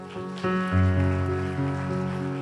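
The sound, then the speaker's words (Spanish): A church audience applauds the Lord steadily at a worship service, the dense patter of many hands blending with sustained keyboard chords that swell in and hold throughout; no one speaks. “¿Qué tal si un fuerte aplauso el Señor?”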